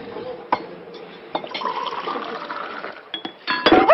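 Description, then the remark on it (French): Water is clumsily spilled from a glass aboard a boat; it splashes and gurgles out, with a couple of sharp clinks of glass early on and a louder, messier burst of sloshing at the end. No voices. “Oh, je suis maladroit. Excusez-moi. Non, non, c'est rien, ce n'est que de l'eau.”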